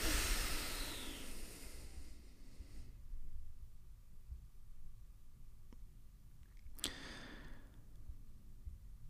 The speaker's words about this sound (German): Jetzt nehmen wir noch einen Atemzug gemeinsam, tief ein und aus. Und atmen so sehr aus, wie wir können.